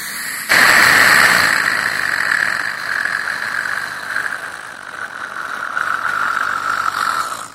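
A dental water spray and suction straw, used to wash out the mouth, switches on abruptly and runs steadily, a loud hissing whine with a high mechanical tone that holds for several seconds without talk.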